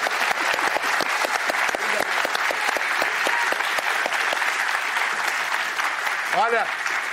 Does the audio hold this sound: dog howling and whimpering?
no